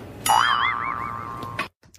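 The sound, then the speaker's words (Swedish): A single cartoon boing sound effect, illustrating a pig's curly tail growing, rings out clearly, its bright tone wobbling up and down in a springy vibrato for over a second before cutting off abruptly. “det ljudet ni hörde där, boinget, det var ljudillustrationer av knorren som växer ut på Tommy Berggren”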